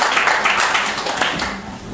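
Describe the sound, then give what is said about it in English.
A crowd of many people at a venue claps steadily, a dense wash of overlapping hand claps at a fairly loud, even level that tapers slightly toward the end, with no voices. “They're all clapping.”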